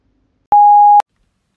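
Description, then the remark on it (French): A single voicemail beep: one steady, clean electronic tone lasting about half a second, loud, with a faint click at its start and end, and silence around it. “Bonjour, vous êtes sous le répondeur de Mathéo. Laissez un message après le bip.”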